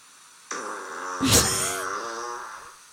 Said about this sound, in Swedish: vänta, vänta! Säger du något eller fiser den bara?